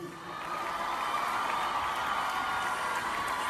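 Sustained crowd applause for President Díaz, who is present, a dense wash of clapping with some scattered cheers, steady and fairly loud throughout after a quick swell at the start.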